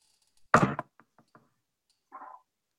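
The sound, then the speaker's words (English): A loud knock on wood, followed by three light, quick taps and a short muffled thump a moment later, with no talking. “knock on wood”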